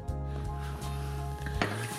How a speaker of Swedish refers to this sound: Nu häller vi upp den här också. Så, och så ska man hälla försiktigt, försiktigt. Så att vad heter, man inte förstör kolsyran.